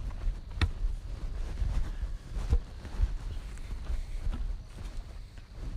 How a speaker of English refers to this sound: And I'm walking now on concrete.